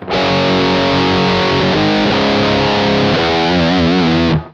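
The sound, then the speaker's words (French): A heavily distorted electric guitar plays a short riff without the artificial harmonic: sustained, chugging chords with no squealing harmonics, ending in a wavering vibrato note before cutting off abruptly. “Voici par exemple ce que donnerait ce riff sans harmonique.”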